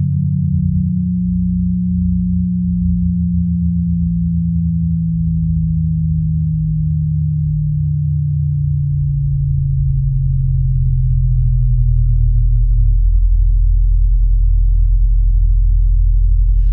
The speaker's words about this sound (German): Und um das vielleicht noch ein bisschen greifbarer zu machen, hören wir jetzt noch einmal rein in die Komposition Keller von Sarah Nemtsov.